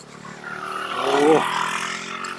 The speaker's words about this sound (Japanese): 今、バイクが通り抜けてきました、ね、結構上なんです。